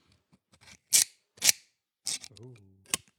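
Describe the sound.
Knipex Cobra adjustable pliers click sharply several times as they are quickly adjusted using a push-button, crisp metallic snaps spaced about half a second apart, with a short spoken exclamation between them.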